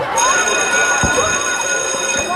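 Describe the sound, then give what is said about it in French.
A school bell rings for the return to school after three weeks of silence, sounding under the covered playgrounds and in schoolyards: a bright, steady metallic ringing with sustained high tones that holds at a constant loud level for the whole clip, with faint background noise underneath. “Et eh oui, trois semaines que la sonnerie n'avait pas retenti sous les préaux et dans les cours d'école, rentrée en présentiel pour les maternelles et les primaires, mais avec un protocole sanitaire toujours très strict.”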